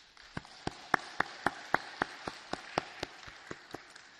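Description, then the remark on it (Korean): An audience claps in unison during a church service, giving applause of glory to God: a steady run of about fourteen sharp, evenly spaced claps over a soft wash of scattered crowd applause, with no talking. “새 하루를 또 새 한 주간을 열어주신 우리 하나님께 영광의 박수 올려드리겠습니다.”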